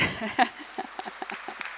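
A short burst of audience applause that quickly thins out into a few scattered, sharp claps at an irregular pace, fairly faint overall, with no voices.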